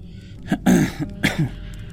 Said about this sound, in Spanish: Piotr Andreyevich se calló y fijó la mirada en la hoguera. Artyom carraspeó.